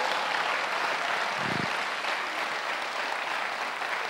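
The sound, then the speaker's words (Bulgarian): An audience applauds steadily to thank God for what He has done in their lives, a dense crackle of many hands clapping at once that stays fairly loud and even throughout, with no voices rising above it. “О, хайде, служи си ръцете заедно, ръкопляска и му благодари му за това, което е направил в живота.”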